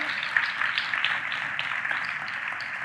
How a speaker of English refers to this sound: And I'm going to ask them to come up this morning. I would encourage you to clap for them as they come.